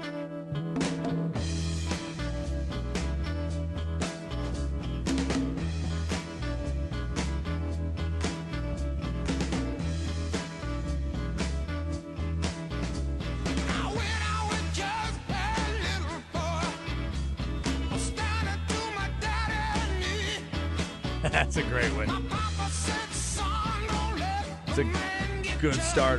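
A gritty, swampy rock song plays loud and steady, with a thumping bass line, driving drums and twangy electric guitar filling the mix throughout, no voices talking over it.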